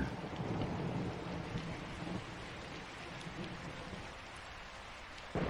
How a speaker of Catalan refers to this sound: La pluja s'intensifica. Es van succeint llamps i trons i la pluja esdevé una cortina d'aigua cada cop més sorollosa. Plou, pega, trona.